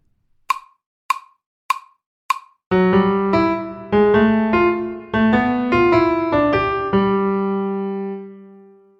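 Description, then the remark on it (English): Four evenly spaced clicks count in, then a short, clear melody of single instrument notes plays as an ear-training exercise, closing on a long held note that slowly fades. No one speaks. “All right, so the idea is that you pause this recording and try to play this melody, okay, from just hearing it those few times, okay?”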